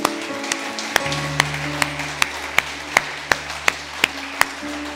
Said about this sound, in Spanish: Junte sus palmas.